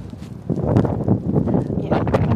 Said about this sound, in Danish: Det er en lille smule blæsende, så det er mere lige at finde de gode ruter.